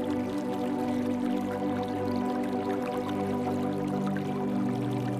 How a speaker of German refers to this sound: Das leise Plätschern kühlen Wassers erfrischt Körper und Geist und weckt unsere neugierige Abenteuerlust.